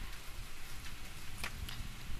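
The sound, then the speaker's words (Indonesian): Steady rain falls throughout, a soft, continuous hiss with scattered droplet taps and a low rumble underneath, at moderate volume with no voices. “sinyal gue jelek banget nih karena hujan bete deh”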